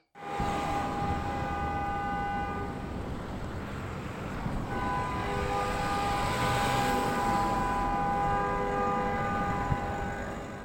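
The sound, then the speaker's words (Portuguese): Car horns blare loudly in long, sustained overlapping tones over a steady wash of traffic noise, pausing briefly partway through before sounding again. “Mas como sei que nas atuais vidas do ser humano já ninguém consegue ouvir os gritos, mas apenas as buzinas dos carros.”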